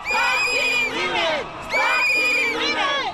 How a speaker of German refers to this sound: Hört auf, Frauen zu töten, rufen sie.